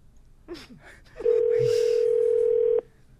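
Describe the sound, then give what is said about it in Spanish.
Telephone dialing to call a woman's husband: a few quick faint clicks and blips, then a loud, steady single-pitched ringing tone holds for about a second and a half before cutting off abruptly. “Espérame tantito usted, yo le voy a marcar a él.”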